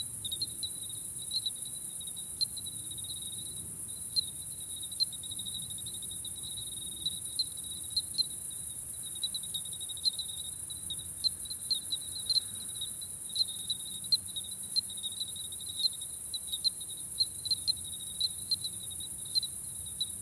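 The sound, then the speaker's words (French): Bell crickets chirp steadily throughout, a high, tinkling, pulsing trill that never pauses, heard alone over a faint low rumble in the background. “Alors que les grillons restent à leur petit rythme de, de clochette.”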